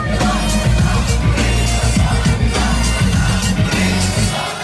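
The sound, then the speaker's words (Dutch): A protest song by a Lebanese rapper blares loudly through giant truck loudspeakers at a protest in central Beirut, Lebanon, its booming bass and distorted sound running continuously over the roar of a large crowd with occasional shouts. “Dan komen er vrachtwagens met gigantische luidsprekers. En, en daar klinkt een nummer.”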